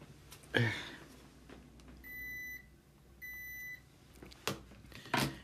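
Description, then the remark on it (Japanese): Two electronic beeps from an air conditioner being switched off, each a steady mid-high tone lasting about half a second, framed by a few short knocks and clicks. “ょっと寒いなエアコン止めようよいしょ”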